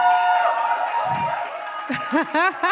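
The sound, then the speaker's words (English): A live audience cheers and whoops, with several voices rising and falling in loud, excited yells over a steady murmur of noise; any clapping is buried under the shouting. “Oh my God, give you guys clap, man.”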